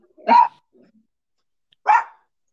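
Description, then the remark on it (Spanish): A small female pet dog named Tabata barks twice, sharp, with a short pause between the yaps and faint rustling in between; no one speaks. “Ay, disculpen aquí, la doña Tabata es mi perrita.”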